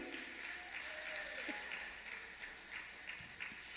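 A crowd applauds steadily, a dense wash of many hands clapping at once, fairly loud and continuous throughout, with a faint voice briefly audible underneath.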